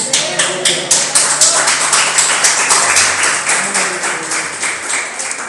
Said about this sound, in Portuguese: Dê uma linda salva de palmas para o Senhor Jesus.